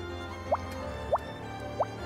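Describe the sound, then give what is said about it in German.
Rain starting to drip as darkness falls: three distinct, hollow plops fall at slow, even intervals, clear against a quiet, faintly humming background with no one speaking. “Und als die Dunkelheit einsetzt, beginnt es langsam”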